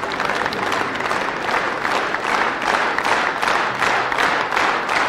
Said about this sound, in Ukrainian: Вони ідуть зі сцени, але оплески не припиняються. Ведуча намагається щось сказати, але оплески не припиняються.